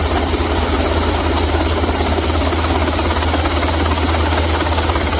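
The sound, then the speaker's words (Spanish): A helicopter roars loudly and steadily, its deep engine rumble and rushing rotor noise filling the whole stretch without pause. No voices are heard. A helicopter evacuating two freed hostages. “Los dos liberados han sido evacuados en helicóptero”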